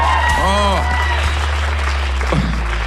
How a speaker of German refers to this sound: Ein Applaus an die Band.